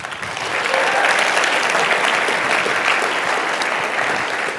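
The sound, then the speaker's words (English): Sustained applause from a large audience, a dense, steady wash of clapping that swells quickly and holds at full strength for several seconds without any speech over it. “Give it up one more time.”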